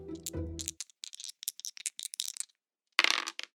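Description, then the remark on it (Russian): Dice rattle and clatter across a hard surface, a quick burst of sharp clicks and tumbles, followed by a brief pause and a final short rattling flurry, landing on a total of 10. Clear, no talking. “Для того, чтобы убедить Славу убрать оружие, вам надо бросить кубики.”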